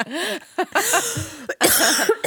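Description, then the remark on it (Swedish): A prolonged coughing fit: several harsh, rasping coughs in quick succession with brief wheezy gasps between them, loud and dry, with no talking. “För när jag börjar hosta, då hostar jag länge.”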